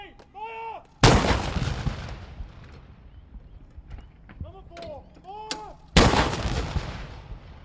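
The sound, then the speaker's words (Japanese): Two heavy cannon booms from a ceremonial 19-gun salute marking the end of the 46th Federal Parliament. They are fired about five seconds apart, each loud and echoing as it rolls away, with birds calling faintly in the quiet between shots. “第46回連邦国会は19発の礼法の音で終わり”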